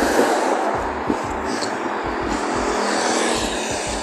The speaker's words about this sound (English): Sorry, ignore the car.